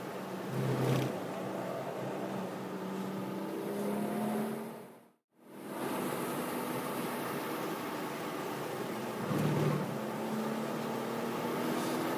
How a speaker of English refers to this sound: Let's do one more. One more. Why not? Down the front stretch, into third, and this will be our last time around Laguna. God, it's just, it is such a fun car. There's just no way around it.